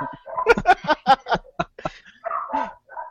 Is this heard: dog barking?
yes